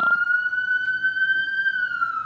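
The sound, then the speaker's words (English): An emergency vehicle siren wails outside in one long, sustained tone that slowly rises and then dips. It's clear and prominent against faint background noise, with no one talking. “sorry the cops are of, or whatever um well not the cops but y'all”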